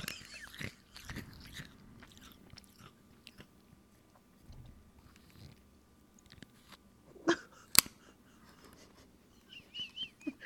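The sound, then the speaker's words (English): Crunching and chewing as someone bites into Pez candy, with irregular crisp snaps and mouth sounds over several seconds and a couple of sharper, louder crunches near the end. “Is that how you eat them? You don't just put it straight in your mouth”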